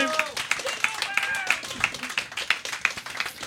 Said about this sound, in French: S'il vous plaît, on applaudit Simon-Pierre Bilodeau, notre invité de la journée.